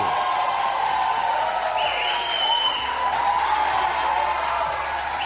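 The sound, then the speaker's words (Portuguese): An audience applauds Camilo Santana, governor of Ceará state, steadily for about five seconds, dense overlapping clapping at an even level, with a thin high whistle-like tone rising out of it briefly midway. “Mais aplausos pro Camilo.”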